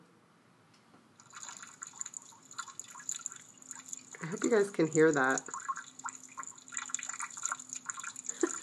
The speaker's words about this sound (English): That's snow melting off the roof down the side of the building right there in what the M's the S's section of fiction. Oh, you could hear it through the whole barn.